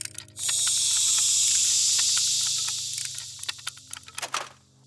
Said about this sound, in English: Steam began hissing from his neck for a moment before his unknowable mechanisms within corrected the leak.